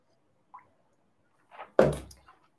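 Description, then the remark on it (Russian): Someone drinks water: a faint click, a soft wet sip, then a louder gulping swallow, with no talking. “воды попью.”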